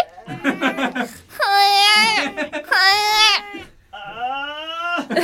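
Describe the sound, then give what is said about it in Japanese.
A voice imitates a baby crying: three long, wailing cries with wavering pitch, close and loud, preceded by short babbling sobs, with no other speech. “赤ちゃんの鳴き声をどうぞ”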